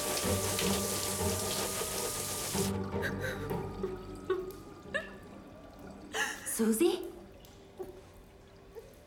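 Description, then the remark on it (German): Water gushes steadily from a tap for a few seconds, then cuts off, followed by scattered splashes, clinks and handling noises as someone washes at a sink, with quiet speech mixed in. “Lass Wasser spülen, hinfort den Spuk.”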